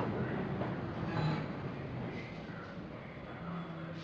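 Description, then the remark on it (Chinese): A subway train rumbles along with a steady, dense roar and a low hum, holding a fairly even level throughout with faint higher hiss and no clear voices. “刚走进地铁，找了个座位坐下”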